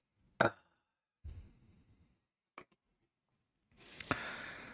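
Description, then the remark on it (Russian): A sharp pop opens, followed by a low rumbling shuffle, a single small click, and then a hissy burst of noise with another quick snap near the end. “Чпок и готово.”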